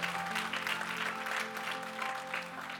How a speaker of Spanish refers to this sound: Dele ese aplauso fuerte al Señor.